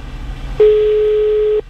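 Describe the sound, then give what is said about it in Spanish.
A single steady telephone ringback tone sounds for about a second while a call is being placed, a loud, even, mid-pitched beep that starts and stops abruptly over faint background noise. “Estamos llamando.”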